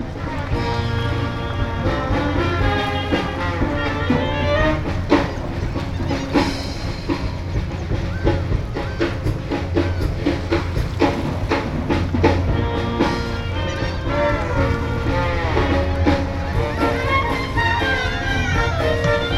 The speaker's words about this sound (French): sortant d'un bateau amarré, nous entendons le son d'un orchestre jazz typique qui joue pour contenter les touristes en croisière.